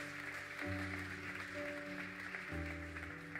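During a Christian sermon, steady crowd applause for the King (God), a dense continuous clatter of many hands, while sustained keyboard or organ chords hold underneath and shift twice.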